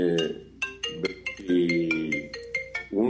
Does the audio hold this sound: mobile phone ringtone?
yes